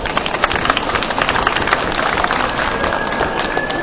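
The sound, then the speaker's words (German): Steady applause from an audience at a live event, a dense crackle of many hands clapping for the host's assistant, holding at an even, fairly loud level for the few seconds without anyone speaking over it. “bitte mal einen kräftigen Applaus.”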